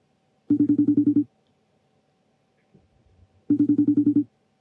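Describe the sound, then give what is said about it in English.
An outgoing phone call to a mother rings on the line: two bursts of a buzzy, rapidly pulsing ring tone separated by a pause, clear, with only faint rustling in between. “If she loves me, she'll answer the phone.”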